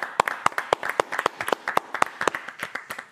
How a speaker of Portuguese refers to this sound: E hoje nós temos conosco um dos talentos da nova novela das nove da TV Globo, Terra e Paixão. Eu quero palmas calorosas para Flávio Baurac, senhoras e senhores.